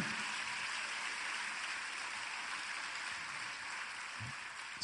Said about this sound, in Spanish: Y dale un fuerte aplauso al Rey.